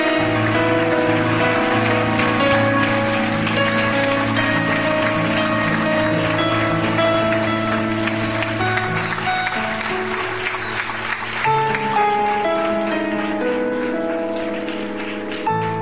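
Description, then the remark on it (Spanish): A large crowd at a worship service claps loudly and steadily for about sixteen seconds, a dense crackling wash of applause layered over sustained music with held keyboard chords. “Dale fuerte el aplauso, Señor.”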